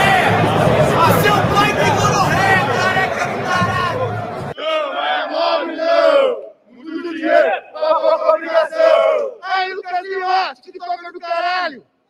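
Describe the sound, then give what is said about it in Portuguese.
A large crowd of Palmeiras football fans roars in a stadium, then breaks into loud, rhythmic group chanting, phrases sung in unison with brief pauses between them. “fiquem com esse vídeo aí, ó. Grandes momentos da torcida do Palmeiras.”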